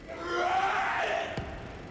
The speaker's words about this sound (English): Otherwise, Mel Gibson won't stop screaming.